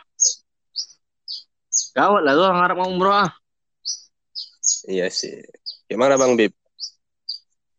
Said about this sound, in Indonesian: Itu suara burung iya.